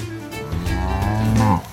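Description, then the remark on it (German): A grazing dairy cow in Ireland moos loudly, a long low drawn-out bellow with a rising, wavering pitch near the end, heard alone. “In Irland fressen Kühe noch Gras.”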